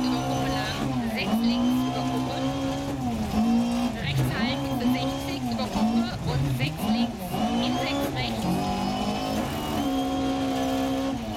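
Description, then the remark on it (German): A rally car engine drones steadily, its pitch repeatedly dipping and surging in uneven wobbles, giving it an irregular, strained, strange sound throughout. “Manchmal hört sich der Motor wieder komisch an.”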